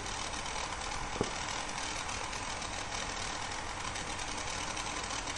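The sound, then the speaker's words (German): A handheld gas torch, a new tabletop lighter of the Bunsen-burner kind, burns with a steady, dense roaring hiss, broad and unbroken. A single faint click pops up briefly near the start, and no one speaks. “Das ist eigentlich fast schon ein Schneidbrenner. Also ist auf jeden Fall zum Karamellisieren auch geeignet.”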